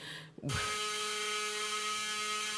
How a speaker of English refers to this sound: That's the lunch bell.